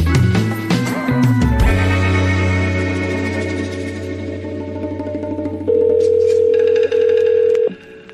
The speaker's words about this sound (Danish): Det er som at ringe i sådan en satellittelefon.